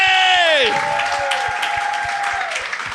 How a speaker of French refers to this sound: applaudissez